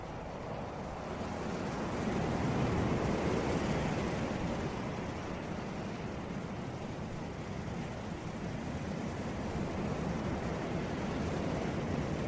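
ocean waves

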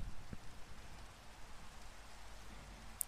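rain falling

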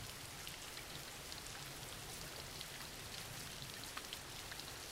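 background rain

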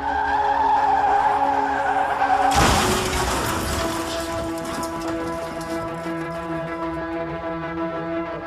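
car skidding and crashing

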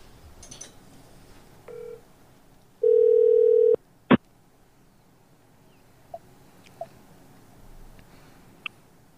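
telephone ringback tone

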